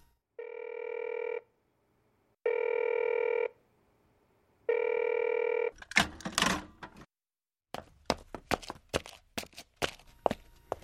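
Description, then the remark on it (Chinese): A public payphone in a phone booth rings three times in steady, evenly spaced tones, followed by a burst of handset rustling and then a quick series of sharp, irregular dialing clicks. No one speaks. “他站起来向公用电话亭走去。”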